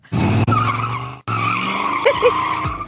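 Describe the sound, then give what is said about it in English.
A car's engine roars while its tires squeal and skid in two loud, sustained bursts separated by a brief cut, with whining tones rising and falling. “that a new car? No, it's the same uh, car he's always had.”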